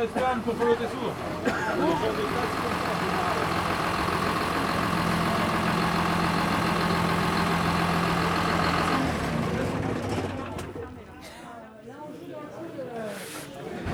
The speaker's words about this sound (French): Donc euh, là, on est dans Lactalis et il y a un tracteur euh, de la conf qui a l'air d'arriver.